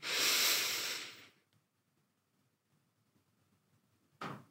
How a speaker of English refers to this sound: So completely focusing on your on your breath as you take a deep breath in and as you breathe out, one. Breathing in.